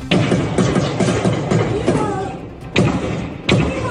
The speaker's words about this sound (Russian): В соцсетях появились любительские видеозаписи из Сдерота, где видно людей в военной форме с оружием и слышны звуки выстрелов.